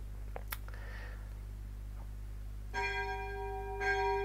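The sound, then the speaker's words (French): A church bell tolls twice, its resonant ringing strokes arriving about a second apart and lingering, over a steady low background hum with no one speaking. “Bonjour la cloche. Certains m'ont dit j'ai pas entendu la cloche samedi dernier, eh ben voilà, vous l'entendez.”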